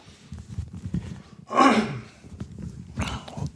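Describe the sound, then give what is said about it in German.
A person clears their throat with one loud, raspy rumble partway through, followed by a second, softer throat-clearing burst near the end, over a quiet murmur of background sound. “Ihr merkt schon, heute ist der Räuspertag.”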